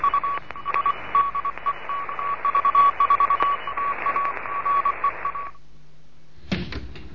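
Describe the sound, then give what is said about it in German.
Morse code tones from a Morse lesson for beginners: a steady high-pitched beep keyed into rapid dots and dashes over hissing radio static for about five seconds, then silence and a short clunk. “Hier ist dj 1 Kilo November mit einem Morseunterricht für Anfänger.”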